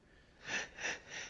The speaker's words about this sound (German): Entschuldigung. Ja. Gesundheit. Danke.